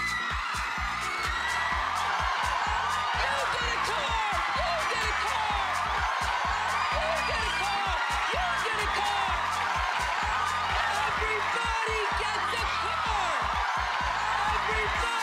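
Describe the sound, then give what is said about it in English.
A large audience screams and whoops excitedly as they open their boxes, a dense, loud, continuous wall of overlapping high-pitched voices that keeps going for the whole stretch without pause. “The reason why I was screaming the words is because other people were screaming so loudly.”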